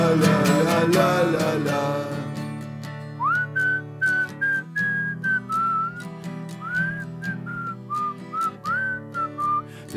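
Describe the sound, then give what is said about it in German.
A person whistles a bright, wavering melody in short phrases over steady instrumental music at the end of a football club fan song, the notes sliding and bending between pauses. “Pfeifen ist jetzt nur noch ironisch am Ende.”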